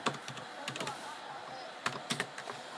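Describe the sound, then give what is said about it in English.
Fast, irregular clatter of typing on a computer keyboard, with sharp key clicks in quick bursts and a few louder strikes near the end, over a faint hiss. “I'd be faster at typing if I knew how to spell, but I'm still fast at typing.”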